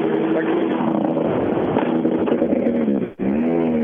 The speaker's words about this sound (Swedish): Tack så Jakobsson där alltså i sin Opel Corsa B. Hög tomgång i alla fall. Ja, den har blivit riktigt fräck.